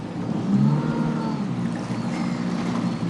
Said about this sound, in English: we're just going to go here into the middle, then uh, we're going to stop the boat, and we're going to do a couple of figure of eights. Okay. okay. You're going to do one engine forward, one engine back. Okay. Twist the boat for us.